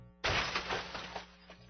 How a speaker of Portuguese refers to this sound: Um forte barulho, como uma batida de carro, se fez ouvir e, um tumulto inusitado começou a ser sentido vindo da rua. O que será que houve? Uma batida de carro, com certeza.